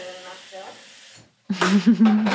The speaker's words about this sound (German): Sie öffnet dafür ihren sehr stylischen Wasserkocher, um Wasser einzufüllen. Ähm, drückt noch mehr Wasser.